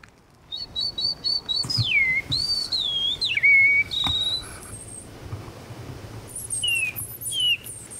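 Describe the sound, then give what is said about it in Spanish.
Soft, mournful whistles by a bird-song imitator imitate a Eurasian bullfinch call in the Bay of Somme: a quick run of short high notes, then several drawn-out descending glides, with pauses between, heard clear over a faint outdoor hush. “Llama al Bouffron Pivron, un ave que tiene un canto un poco triste, incluso poco chiflado en virtuosidad, pero la ave es muy linda.”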